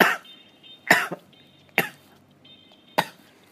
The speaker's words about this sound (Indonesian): kan ngomongin rokok gue langsung batuk